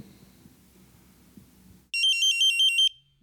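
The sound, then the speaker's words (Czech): A rapid series of about ten sharp, high-pitched electronic beeps from a mine gas analyzer as it is switched on, loud and evenly spaced over one second, following a quiet stretch of low rumbling handling noise. “My jsme si už v dole představili analyzátor důlních plynů, který při zapnutí vydává různé zvuky.”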